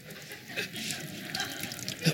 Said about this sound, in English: Not only that, he overflows my cup. Right. All right, start pouring. All right, now watch this. Watch this.